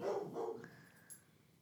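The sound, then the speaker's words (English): Two quick dog barks in succession, followed by a fading high whine or squeak, with no talking. “Please ignore our dog.”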